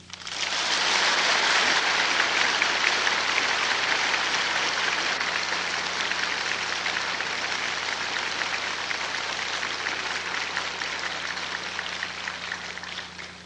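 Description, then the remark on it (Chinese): Sustained applause from a large audience of guests welcoming Supreme Master Ching Hai to give a teaching, a dense steady patter of many hands clapping at once, loud and continuous for the whole stretch with no voices over it. “现在我们请各位来宾、各位大德，以最热烈的掌声，恭请上心下海无上师为我们开示。”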